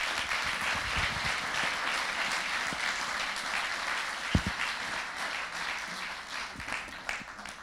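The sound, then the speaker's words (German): An audience applauds steadily as a guest is welcomed, a dense wash of many hands clapping at a fairly even level, with a few sharper individual claps standing out, and no one speaking. “Kommst du zu mir? Applaus”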